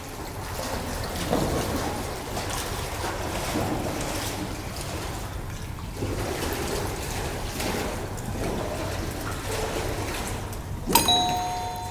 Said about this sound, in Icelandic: er þetta uh, svona sundlaug með, með svona öldugangi, öldusundlaug? Já, akkurat, þetta var sund, bust í sundlaug.